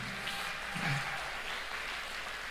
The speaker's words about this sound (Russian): Дайте Господу огромные аплодисменты.